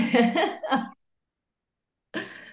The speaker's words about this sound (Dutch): dus ik moet heel even hoesten. Dat is helemaal kut natuurlijk, maar soms moet je gewoon even hoesten.